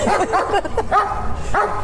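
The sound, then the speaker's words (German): A small dog, the smallest of three, yaps in quick, high-pitched bursts, about five sharp barks in under two seconds, fairly loud over a low background rumble, while the two larger dogs stay quiet. “Der, der, Kleinste ist am lautesten.”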